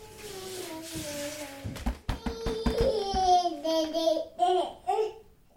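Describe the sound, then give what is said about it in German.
A baby girl babbles, first a long drawn-out vowel, then a quick string of repeated single syllables in bouncy, high-pitched bursts that edge toward giggles. “nur einzelne Silben spricht, steckt sie schon mitten im Spracherwerb.”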